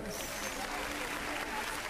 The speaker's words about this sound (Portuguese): Peço a todos, então, uma salva de palmas.